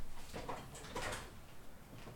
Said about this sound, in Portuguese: Deixa eu ajeitar minha cadeira que ela tá caindo.